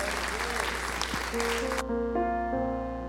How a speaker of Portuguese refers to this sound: Senhor, aplauda mais forte ao Senhor.